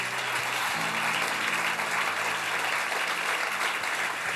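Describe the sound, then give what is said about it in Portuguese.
An audience at a sermon claps for Jesus, steadily for several seconds, a dense, even wash of many hands with no break, holding at a fairly loud level throughout, with a faint low hum beneath it. “Pode aplaudir a Jesus por isso?”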